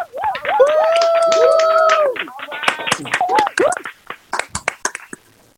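Long, tonal vocal cheers ring out first, then a handful of people clap in scattered, uneven bursts, the sharp claps thinning out and trailing off toward the end.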